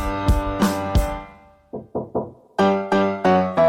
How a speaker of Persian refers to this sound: کیه کیه در میزنه در میزنه کیه کیه در میزنه